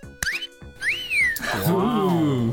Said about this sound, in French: Eh, mon buzzer, moi aussi, je vais, moi aussi, je faire écouter mon buzzer. Oui, fais-nous écouter ton buzzer. Et voilà, mon buzzer à moi.